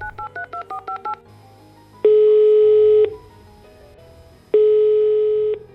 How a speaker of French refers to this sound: Puis elle téléphone à sa mère.